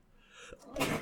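A single forceful sneeze: a short hissing intake of breath builds, then a sharp, explosive burst of air bursts out. No talking around it.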